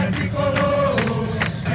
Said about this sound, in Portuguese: Mais de 500 São Paulinos ainda deliravam de alegria quando chegaram os campeões. O ônibus mal conseguia andar. Da janela, ídolos acenavam para fãs incontroláveis. Quem ainda teve garganta botou para fora o grito de guerra do brinco de ouro.